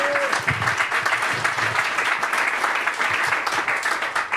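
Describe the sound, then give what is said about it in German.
An audience applauds steadily, a dense wash of many hands clapping at a fairly loud, even level throughout with no voices standing out. “In dem Sinn, noch einen klatschen.”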